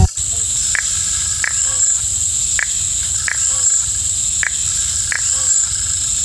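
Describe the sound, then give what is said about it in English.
Crickets scratch their wings in a frog habitat, a steady, shrill trill without pause, cut through by brief sharp chirps at a slow, roughly regular pace over a low outdoor rumble. “We hear the cricket's wings scratching.”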